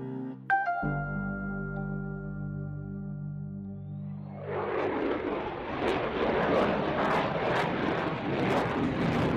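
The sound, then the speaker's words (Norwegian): The engine of a Norwegian F-35 fighter jet starts with a steady low hum and whining tones, then swells around halfway into a loud, broad roar that stays constant. No one speaks. “Dette er lyden av den dyreste investeringa gjort på Fastlands-Norge noen gang.”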